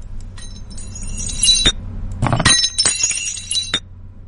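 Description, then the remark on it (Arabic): A drinking glass drops and shatters, bright tinkling shards scattering in two bursts over a low background rumble, with lingering clinks as pieces settle. No one speaks. “صوت صوت ذا كاس طاح وانكسر خلاص نثبت على هذا الجواب كاسة مكسورة”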